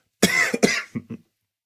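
A close, loud cough in a quick burst of two harsh hacks, followed by two softer, throaty coughs trailing off, all within about a second, with no talking.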